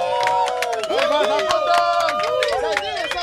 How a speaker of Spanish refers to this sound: Ok, fuerte aplauso entonces